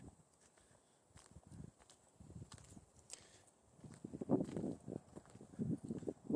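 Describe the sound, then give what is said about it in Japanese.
Nighttime outdoor ambience near the speaker's home: a steady, thin high-pitched drone runs throughout while soft, irregular low thumps and rustles shuffle underneath, growing somewhat louder in the second half. No one speaks. “なんて言うんでしょう 僕の住んでる場所の近くの夜の環境音が入ってるようなあれがあれしたらちょっと面白がる人もいるんじゃないかなというような試みです”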